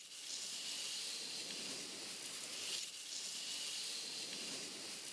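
A brush drags steadily across a vinyl record as a household-object Foley sound, making a continuous, bright scratchy hiss that swells briefly midway. It is fairly loud, with no voices.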